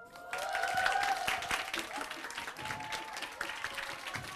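An audience breaks into sustained applause, a dense wash of many hands clapping at a steady loud level, with brief whistles or cheers sounding over it near the start.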